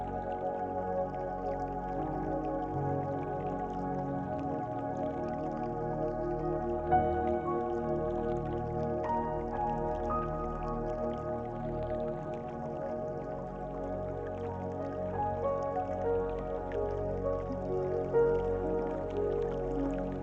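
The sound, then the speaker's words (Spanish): Immersive underwater sea ambience: a steady, enveloping wash of water with soft drips and gurgles over low, sustained tonal hums, even in loudness throughout, with no one speaking. “Vamos a sumergirnos en este mar que escuchamos”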